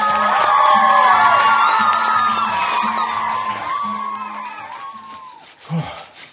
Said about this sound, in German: Und wer jetzt noch nicht weiß, ob das Stück den Kindern gefallen hat, der Applaus am Theater ist der wahre Lohn der Künstler.